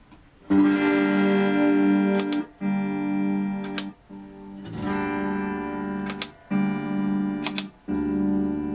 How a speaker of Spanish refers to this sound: Están escuchando la guitarra a través del el FRFR y por el micrófono de la cámara, entonces si se feo es por eso, viejitos.